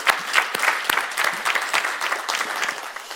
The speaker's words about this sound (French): Amen. On peut faire applaudir le Seigneur.